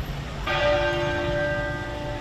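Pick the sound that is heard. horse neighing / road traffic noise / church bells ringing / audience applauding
church bells ringing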